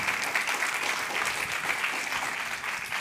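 An audience at a church service applauds the Lord, a dense, continuous wash of many hands clapping at an even loudness for the whole stretch, with no voices standing out.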